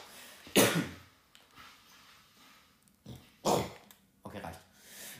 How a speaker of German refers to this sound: Boah, Digga, mein Husten hört sich aber auch gar nicht gesund an, glaube ich.